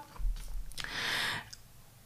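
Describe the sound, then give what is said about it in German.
A single page of paper notes is flipped, a short dry rustle of about half a second, with a soft thump just before it and quiet hush around it. “Ähm, ich habe mir nämlich zum Beispiel jetzt auch ganz viele Notizen gemacht, deswegen hört ihr es zwischendurch mal hier blättern.”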